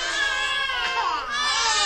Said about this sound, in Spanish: Uh, muchos bebés.